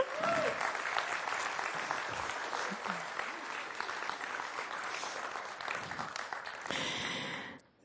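An audience applauds a man who has just been handed a gift. They clap steadily for several seconds, a dense, even wash of hand claps at a fairly loud level, with a few scattered voices mixed in before it fades out at the end.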